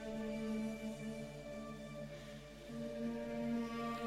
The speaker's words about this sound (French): Vous pouvez entendre la musique euh, derrière moi qui est très très mystérieuse